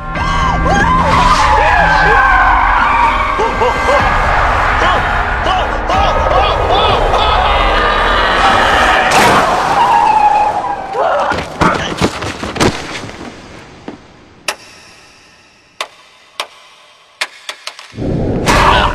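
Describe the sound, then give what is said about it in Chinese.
A police car driven by a female police officer skids to a stop with a loud, drawn-out tire screech lasting several seconds, followed by a scattered series of sharp, abrupt bangs and knocks. “这辆警车又是咋回事呢？”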